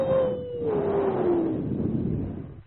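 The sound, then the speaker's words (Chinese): A person imitates an eerie gust of sinister wind in the Chaoyang main courtyard at the third watch of the night, with a long, sustained "wooo" that slowly glides downward in pitch, breathy and hollow, trailing into a rushing hiss with no other sounds. “一股子阴风”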